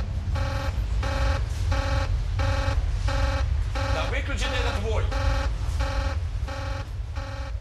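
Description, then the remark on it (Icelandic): Alarm bells at the Chernobyl nuclear power plant sound during a test of the fourth reactor's emergency cooling system, warning that something is wrong: about a dozen evenly spaced, buzzy harmonic tones in a steady pulsing pattern over a constant low rumble, with a voice briefly cutting in midway. “Jafnvel þegar viðvörunabjöllur byrjuði að klingja að eitthvað væri að.”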